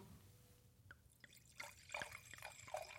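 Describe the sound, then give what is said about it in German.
Silvaner wine poured from a screw-cap bottle: a few soft clicks, then a quiet, uneven trickle of liquid with small splashes and gurgles that grows slightly louder over about three seconds. No voices. “Ich soll den Silvaner aufmachen, hast du gesagt. Ja, mach mal Silvaner auf. Ich mach Atmo, Achtung.”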